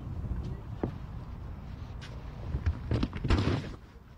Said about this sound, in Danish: Der er en masse elefanter her, som uh, tramper på uh, græskar. Det synes jeg var meget interessant. Pumpkin. Bam igen. Lyden er også god. Lyden er rigtig god.